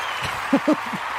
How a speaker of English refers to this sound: And play the applause.